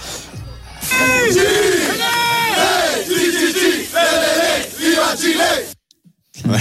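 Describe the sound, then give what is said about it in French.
A large crowd chants the Chilean cheer "chi-chi-chi, le-le-le" in loud, rhythmic bursts of many voices together, energetic, ending abruptly, in Perros-Guirec, Brittany, France. “Voilà, le, chi chichichi, lélélé, euh, c'est ça, hein, écoutez bien.”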